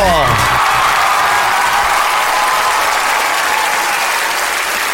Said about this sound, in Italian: Aspetta, finisco gli applausi.